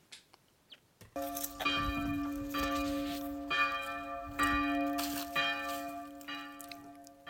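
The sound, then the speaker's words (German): Monastery church bells ring out steadily after a brief quiet start, calling to prayer, their sustained resonant tones overlapping in a rich, continuous peal with repeated strikes, loud, with no voices present. “Hier klingen sie im Hintergrund, die Glocken im Kloster, die dreimal täglich zum Gebet rufen und somit den Tag im Kloster strukturieren.”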